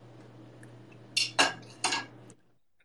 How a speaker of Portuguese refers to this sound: tá cozinhando, né?